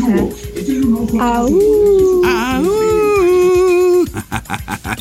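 A wolf howls in two long, rising wails that hold steady before cutting off, loud, with brief chatter and noise before and after.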